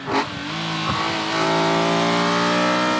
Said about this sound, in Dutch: Het geluid van een originele nieuwe Klasse uit 1972.